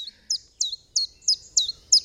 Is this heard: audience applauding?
no